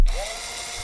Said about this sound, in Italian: Quindi cos'è, maestro? Solo tu puoi svelare Era questo un mistero. Un avvitatore. Un, av- un avvitatore. Un avvitatore.